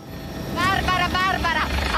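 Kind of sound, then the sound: vehicle, helicopter flying overhead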